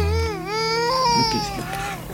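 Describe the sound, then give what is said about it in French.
A baby girl cries after being put back to bed, in one long, wavering wail, its pitch sliding down and back up before breaking off near the end, loud and continuous without any talking. “Elle pleure. Oui, chaque fois que je la recouche.”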